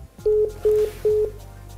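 Three evenly spaced telephone keypad tones beep in sequence as a phone number is dialed, each lasting about a fifth of a second, clear over a faint low hum with no voices.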